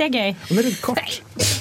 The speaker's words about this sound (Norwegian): Nei, det er graps. graps i nesa. Ah, jævla graps. Det er den snusen, ass. Den får ah, meg til å nyse.